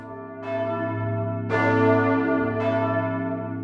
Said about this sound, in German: Glocken wurden schon seit jeher für Rituale und Zeremonien genutzt, von den Heiden zur Vertreibung von bösen Geistern